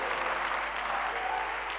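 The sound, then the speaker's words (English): An audience at a prayer gathering claps steadily, a dense, even wash of many hands with no pauses, loud and sustained throughout. “Somebody who is clapping your hands, the power of God is upon you.”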